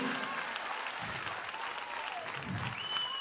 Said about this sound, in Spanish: Si alguien lo cree, que le dé un aplauso fuerte al rey.